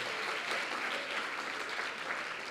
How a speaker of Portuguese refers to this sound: Aplauda a palavra aí do Senhor. Aleluia.